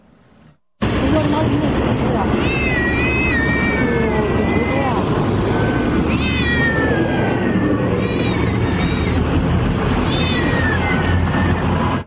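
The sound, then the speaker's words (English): Many distressed house cats in China, confiscated from people's homes by the Chinese government and thrown in bags, meow and yowl in overlapping, wavering cries, repeating throughout over a loud, constant rumbling background noise that starts abruptly after a brief quiet moment. “The Chinese government has also confiscated some huge but unknown number of house cats from people's homes, thrown them in bags, and left them on sidewalks to be killed.”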